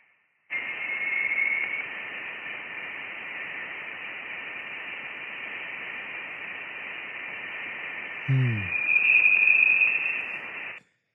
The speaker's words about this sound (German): Aber wieder die elektromagnetischen Wellen halt ein bisschen runter in den Frequenzbereich, den wir hören können, runter verschoben.